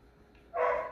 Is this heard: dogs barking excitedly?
yes